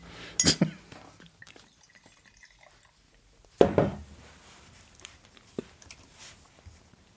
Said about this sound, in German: Ich kriege den Korken nicht mehr rein. Scheiße. Was ist denn jetzt?